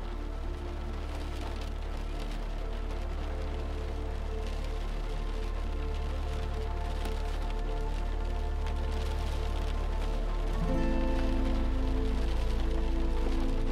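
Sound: rain falling and trickling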